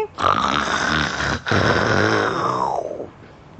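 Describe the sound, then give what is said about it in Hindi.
A voice imitates a lion's roar: two long, loud, gravelly growls with a brief break between them, the second trailing off into a fading rasp. “और उसको बड़ी खुशी हुई और फिर उसने ज़ोर से दहाड़ के”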